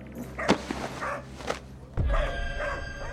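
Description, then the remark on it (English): Dogs bark excitedly over a frost-covered woman's body they have found, a few sharp, loud barks spaced out over a couple of seconds, with a steady low rumble of background noise underneath. “I'm not sure, but the dogs are going crazy over it.”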